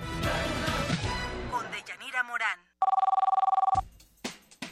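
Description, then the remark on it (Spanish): A telephone rings once in a radio studio booth as listeners call in: a short, loud burst of rapid trilling pulses, about a second long, sandwiched between music with voices before it and someone talking after. “Pues sí, ya mucha gente que empieza a llamar por teléfono y ahí les contesta amablemente mi compañera”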